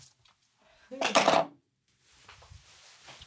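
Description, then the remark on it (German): A short, clattering rattle of a die being rolled across a hard surface, lasting about half a second and landing on a five, followed by faint, low voices talking quietly in the background. “Und ich würfle mit dem Würfel.”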